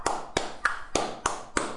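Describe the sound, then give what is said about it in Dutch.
Six sharp hand claps in a steady, even rhythm, each a crisp bright smack with a short ring-off, with no voices in between, clapped during a reading out of names. “En daarom ga ik deze week klappen tijdens de namen.”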